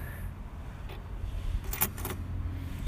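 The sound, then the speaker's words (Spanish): A few brief metallic jingles of a set of keys just found being handled, with sharp clinks spaced unevenly over a steady low rumble, moderately loud, with no talking. “Qué mamada, gente, acabo de encontrar unas llaves.”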